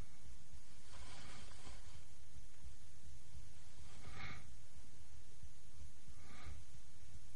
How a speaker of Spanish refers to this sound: La respiración es abrupta y la confusión reina en el ambiente.